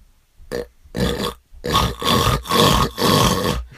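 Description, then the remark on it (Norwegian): Someone imitates with their voice the heavy, obstructed snoring caused by enlarged tonsils blocking the throat: a quick run of about six harsh, rasping, growl-like breaths, loud, with no speech around them. “Ja, jeg snorka jo Jeg hadde jo Jeg hadde sånn mandel Sånn forvokste mandler i, i et par år.”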